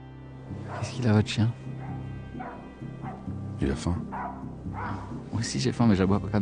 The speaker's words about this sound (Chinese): 见套不出话，警察正准备放弃，此时羊圈里的狗子猛然叫了起来。